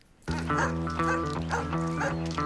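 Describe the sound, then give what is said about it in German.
A dog barks and yaps insistently after a brief quiet moment, loud, its sharp barks repeating in a quick, steady rhythm that continues to the end. “auch wenn da zum Beispiel eine große Tür oder ein Tor ist und dahinter ein Hund wartet,”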